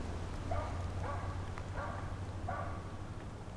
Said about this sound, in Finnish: Koira haukkuu toista.